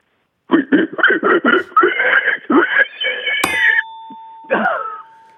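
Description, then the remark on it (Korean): A voice mimics a pig squealing in panic while being chased, with a quick run of sharp, high squeals that stretch into longer shrieks. A loud bell dings partway through, and the squealing briefly returns afterward. “어, 돼지가 위기에 쫓겨서 내는 소리입니다.”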